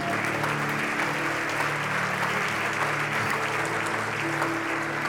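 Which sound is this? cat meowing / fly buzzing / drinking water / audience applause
audience applause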